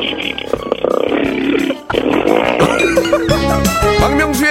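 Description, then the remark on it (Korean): A second-year high school girl loudly imitates a motorcycle engine on Park Myung-soo's Radio Show, with buzzy, sputtering revs, breaking off briefly before revving up again with rising and falling pitch. “저 오토바이 준비저 고2 여학생이 하는 소리입니다.”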